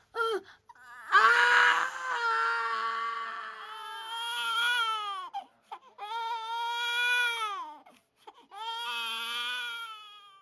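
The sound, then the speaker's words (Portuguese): A newborn baby, born undernourished, cries loudly just after birth in three long, wailing bursts separated by short gasping pauses, with no talking over it. “o bebê nasceu subnutrido.”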